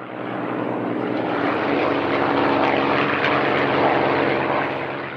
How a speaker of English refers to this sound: He flew the agile P 51 Mustang in World War II.